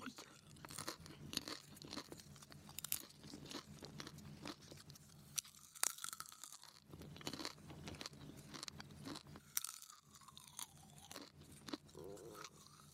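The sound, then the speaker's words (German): Crisp crunching and chewing of popcorn, a rapid irregular series of bright crackles and mouth sounds filling the whole stretch, with some breathy voice noises mixed in. “Es folgt ASMR Popcorn in 3, 2, 1.”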